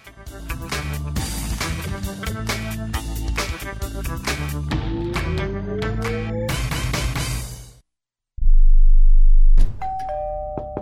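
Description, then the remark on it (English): A doorbell chimes repeatedly among dense ringing tones, then after a brief silence comes loud, low, heavy pounding on a family's front door by a court process server delivering foreclosure documents, followed by another bell tone. No one speaks. “They know that the pounding on the door is a process server from the court waiting to hand them foreclosure documents.”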